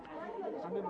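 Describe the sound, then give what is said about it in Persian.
Several actors of a theatre group murmur and chatter at once, warming up their voices before performing Antigone, overlapping in a steady, moderately loud babble. “ما یه گروه نمایشی هستیم و برای شما نمایش آنتیگون رو اجرا میکنیم صدایی که میشنوید صدای هنفشگان این بازیه که دارن صداهاشون رو گرم میکنن و برای اجرای نقششون آماده میشن”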